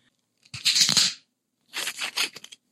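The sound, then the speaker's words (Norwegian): A screw cap wine bottle being twisted open: two short bursts of crisp, rasping crackle as the metal seal snaps and turns, with silence between and no voices. “Skrukork. Vi kjører skrukork.”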